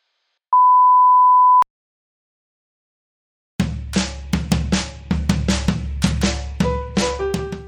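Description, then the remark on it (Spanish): A single steady electronic beep, loud and clear, lasting about a second, like an answering machine tone, followed by a brief silence before rhythmic music begins. “Este es el contestador de Descolgados. Por favor, manténgase a la espera”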